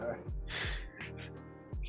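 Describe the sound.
A voice mimics being out of breath, with several quick, breathy gasps and pants in uneven succession, fairly loud, with no words spoken.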